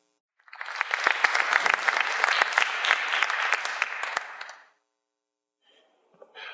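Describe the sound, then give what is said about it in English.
A crowd breaks into dense, steady applause, many hands clapping together for about four seconds before it quickly dies away; a voice starts speaking faintly afterward. “Give everybody a round of applause who was so.”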